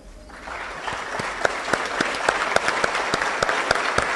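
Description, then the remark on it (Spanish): Steady applause from an audience standing for a minute of applause in tribute to a fellow member of the state legislature, a dense wash of many hands clapping with sharper individual claps popping out at an irregular rhythm, sustained for several seconds without speech. “Por último, quisiera pedir a todas y todos los presentes ponernos de pie y brindarle un minuto de aplausos como homenaje a nuestro compañero de legislatura.”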